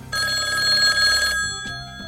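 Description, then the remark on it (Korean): A telephone ring tone sounds for just over a second, a steady electronic trill heard clearly, then cuts off into quiet background noise with a faint click; a call being placed to parents. “이런 퇴근길의 긴장감을 아는지 모르는지 집코가이들은 부모님에게 전화를 걸었고”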